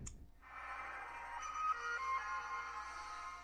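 A shimmering electronic video-game synchronization chime, the sound from when you sync in the game, plays as a phone ringtone, swelling in after a brief click and holding a bright, sustained tonal wash with a few steady high notes. No one speaks.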